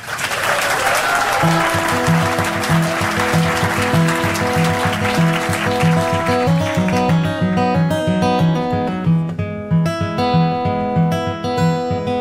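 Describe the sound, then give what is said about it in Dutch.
A crowd claps warmly during a live broadcast of Touché in the Spiegeltent at the Boekenbeurs, welcoming a young talent: a dense steady wash of applause, while a melodic instrumental tune with a pulsing low beat begins underneath and carries on alone as the clapping fades out. “Geef hem een zeer warm applaus.”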